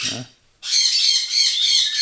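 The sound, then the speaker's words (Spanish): A loud, harsh squawk from an exotic pet bird bursts in after a brief pause and rasps on continuously for over a second, piercing, following a short snatch of voice at the start. “No, los que están dentro de casa son normalmente para que se queden aquí. ¿eh? Porque son especies exóticas, pues que se han perdido por ahí, que no ha aparecido el dueño”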